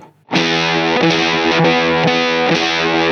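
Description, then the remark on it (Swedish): A heavily distorted electric guitar plays a fifth, a thick buzzing power chord that rings loud and steady, re-struck roughly every half second for about three seconds. No one speaks over it. “Ja, men om vi tar kvint till exempel, då Ja.”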